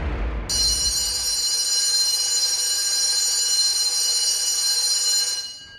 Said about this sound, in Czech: Ano, školní zvonění nám připomnělo, že začal nový školní rok